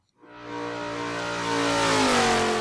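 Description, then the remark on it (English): The engine of a clean-sheet-design motorcycle from an American company in Birmingham, Alabama starts up and revs hard, its loud roar climbing steadily in pitch and intensity over a couple of seconds with no one speaking. “This this, this is a motorcycle.”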